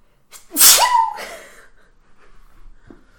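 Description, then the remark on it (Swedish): A single loud sneeze: a sharp hissing burst followed by a tonal, voiced whoop that trails off, then quiet breathing and a faint sniff. “Ska vi gå vidare med den nysningen då kanske?”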